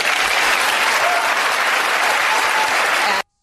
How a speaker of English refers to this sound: there's quite a bit of them cheering, and they cheer is for a long time